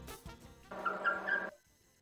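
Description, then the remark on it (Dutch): Baby hedgehogs chirping for their mother: a couple of quick squeaks, then one sustained, high-pitched whining call lasting close to a second, with no voices present. “Ja, ik weet het zijn jonkies chilpende jongetjes die je moeder roepen.”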